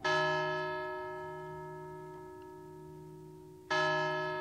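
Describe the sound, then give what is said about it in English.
A clock bell strikes the hour of two, each stroke a rich, resonant chime that rings out and slowly fades before the second strike lands about three and a half seconds later. “He drifted off to sleep, only to be awakened again by the stroke of two.”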